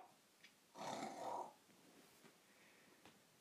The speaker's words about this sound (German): Mein Gott, ignoriert mein Hund. Der schnarcht immer so laut.